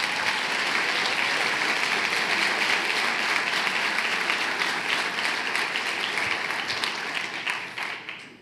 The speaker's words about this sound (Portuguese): Pode aplaudir Jesus.